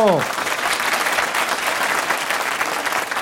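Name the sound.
audience applause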